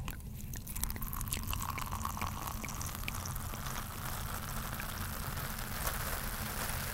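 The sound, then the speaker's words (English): Sparkling wine being poured into glasses, with a steady fizzing hiss and dense crackle of bursting bubbles, continuous for several seconds with no talking. “Let's get some glasses.”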